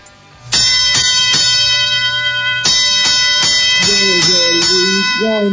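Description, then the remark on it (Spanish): A bright metallic bell, rung as in boxing, sounds in repeated sharp strikes, ringing out with a sustained shimmering tone, loud, while a voice begins speaking underneath toward the end. “y ahora, como en el boxeo, a ver las campanillas”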